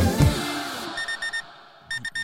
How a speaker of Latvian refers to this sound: Kas tā, kas te pa morzes signāliem? Man liekas, tas ir tavs modinātājs, kurš eh, šorīt Noskanēja vai nenoskanēja?